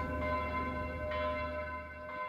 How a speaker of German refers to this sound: Ja, wir hören hier die Glocke der Thomaskirche läuten um 12 Uhr. Und das Hauptgeläut, das ist noch dasselbe, was zu Bachzeiten erklungen ist. Also ziemlicher Sicherheit kann man sagen, wir hören jetzt dieselben Klänge, die Bach schon gehört hat.